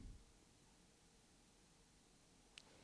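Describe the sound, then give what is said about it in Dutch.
A faint, steady hiss of room noise, like computers and heating running, fills a quiet space, with a brief high tick near the end and a soft thump at the close. “Ja, het enige wat je nu hoort, dat, dat, dat is wat aan een ruis. Omdat eh, twee computers aanstaan.”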